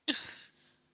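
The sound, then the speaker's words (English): A single soft yawn, a breathy, airy exhale that starts abruptly and trails off quietly over about half a second, with no talking. “Sorry, I'm yawning.”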